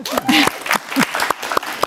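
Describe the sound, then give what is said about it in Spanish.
An audience claps in a dense, steady burst of applause lasting a couple of seconds, with a few scattered voices and whoops rising through the clapping. “Un aplauso para eso.”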